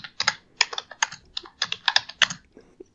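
Rapid, uneven clatter of keys on a computer keyboard, close and fairly loud, with bursts of quick keystrokes and short pauses, no voices.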